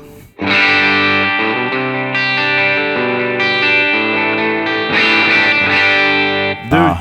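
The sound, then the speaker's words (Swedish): Distorted electric guitar with Ron Ellis pickups, its volume knob turned down, strums sustained, ringing chords for about six seconds, shifting between a few chord shapes at a steady, full level before cutting off abruptly. No voices are heard. “Fredrik och Ulf gör ett stortest på Ron Ellis populäraste mikrofoner.”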